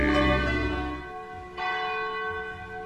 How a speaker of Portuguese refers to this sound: Quando toca o sino da Catedral de Nossa Senhora de Aparecida.